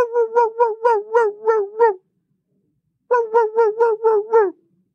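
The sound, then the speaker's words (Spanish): A dog barks in two quick bursts of about six or seven sharp yaps each, separated by a short pause. The barks are fairly loud, with no talking. “¿Será que si ladro aparece? Y empiezan...”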